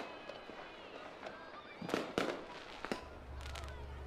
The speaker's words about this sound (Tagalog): Mga nagpapaputok na naman.